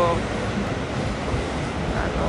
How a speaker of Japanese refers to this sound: 走ってますね京王線の電車が